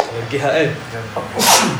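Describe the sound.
A person talks briefly, then lets out a single loud sneeze, a sharp breathy burst near the end.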